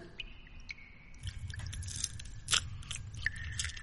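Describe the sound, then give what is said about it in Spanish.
Wet, squelchy chewing by a three-faced creature chewing on people like gum, a steady mouthy churn broken by a few sharper crunching bites, with no voices around it. “Bienvenida, dijo la cara central mientras seguía masticando.”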